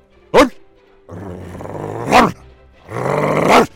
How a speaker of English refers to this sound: Apollo finally gave the reflection a good loud bark.